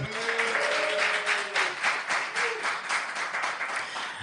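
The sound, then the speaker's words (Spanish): A live audience applauds steadily, a dense, even wash of many hands clapping at a fairly loud level, with a brief whistle-like tone early on and no one speaking over it. “Un aplauso, un aplauso, venga.”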